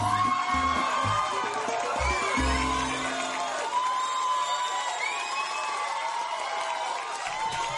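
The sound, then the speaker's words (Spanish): A dense crowd cheers and whoops loudly and continuously in an ovation welcoming a guest to the segment Cultivate con el Sensei, with high shouts and scattered clapping filling the ovation for its whole length. “Ovación para ti.”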